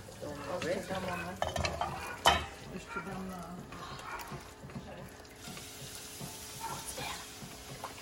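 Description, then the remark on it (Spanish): Boiled water pours into a hot cooking pot, setting off a loud hiss and sizzle that settles into a steady bubbling crackle, with clinks and stirring sounds and faint voices in the background. “Hirvieron agua y le van a poner más agua.”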